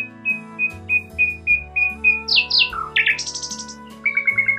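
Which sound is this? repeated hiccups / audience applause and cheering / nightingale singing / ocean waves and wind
nightingale singing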